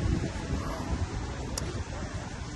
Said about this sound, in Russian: Ветер из каких-то мест, где пока еще достаточно льда, очевидно.